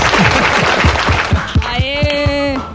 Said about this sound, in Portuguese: Uma salva de palmas